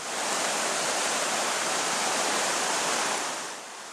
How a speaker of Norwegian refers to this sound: Lyden av den voldsomme og ødeleggende Veikleåa sitter fortsatt sterkt i minnet til folk som bodde og bor langs åa.